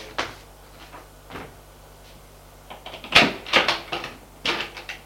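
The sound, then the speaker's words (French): A door at the top of a staircase is unlocked with a key and pulled open: a few sharp metallic clicks and clunks, then a louder cluster of rattling knocks near the end, with no talking. “En haut se trouve une porte. Avec la clé, il l'ouvre.”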